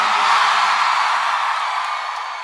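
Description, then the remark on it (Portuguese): A large live crowd in Salvador, asked to raise their hands and shout, roars with sustained shouting and cheering, a dense wall of voices that stays loud throughout and eases off slightly at the end. “Quem gostou, joga a mão e dá um grito, Salvador.”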